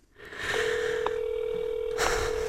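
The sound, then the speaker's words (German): A single steady phone ringback tone from a mobile phone held in hand while calling sounds for about a second and a half, a clear mid-pitched beep heard alone over faint hiss, with no talking. “Ja, aber es tut es doch immer erstmal noch dreimal tun und dann Mailbox.”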